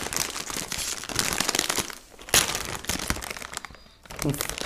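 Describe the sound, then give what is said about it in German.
A bag of Carolina Reaper-flavored cheese sticks is pulled open with loud, continuous crinkling and crackling plastic, a sharp rip partway through, while people talk over the rustling. “Ähm, ja, mach das Ding aber mal auf”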